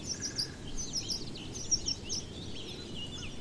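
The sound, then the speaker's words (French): Several small birds at a well-filled nest chirp and tweet in quick, high bursts over a steady low background hiss of outdoor ambience. The calls are fairly soft and come in an irregular chatter, with no one talking. “Et tandis que vous vous en rapprochez, ah, vous observez aussi, oui, ces oiseaux sur la droite là. Un nid. Oh, un nid bien rempli.”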